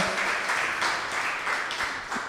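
A crowd applauds steadily, a dense wash of many hands clapping together at an even level with no voices over it, filling the whole stretch.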